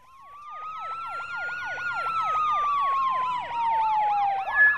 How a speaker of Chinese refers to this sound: 主人公被外面的警笛声惊醒，跑到窗外，窗外风雨交加，警车和救护车停在外面。